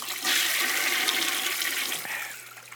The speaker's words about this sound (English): Like every time I finish a show, I just I do this. Watch, I, I flush the toilet like that, and, and